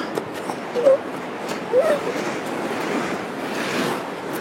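Waves wash steadily onto a shore in a continuous broad rush, with a couple of brief, faint chirp-like sounds near the start and wind noise throughout.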